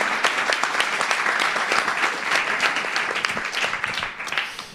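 Sustained audience applause, a dense crackle of many hands clapping at once, steady and fairly loud before thinning slightly toward the end. No one speaks over it.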